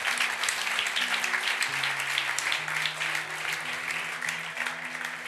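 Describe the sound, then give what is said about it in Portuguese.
An audience applauds with dense, steady clapping that holds throughout, while low sustained keyboard or organ notes shift pitch softly underneath. “Pode aplaudir Jesus.”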